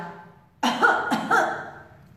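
Two quick, harsh coughs in close succession, fairly loud, with no talking around them and a quiet pause before the first.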